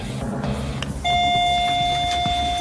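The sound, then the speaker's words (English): A bell starts ringing about a second in and holds a steady, bright electronic tone to the end, loud over a low background rumble, during a social compliance experiment with four women. “So now we're going to remove the three actors, leaving us with a line of these four ladies who have been given no instruction to stand or sit down with the bell.”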